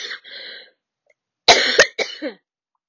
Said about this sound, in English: Sorry, I had to cough real quick.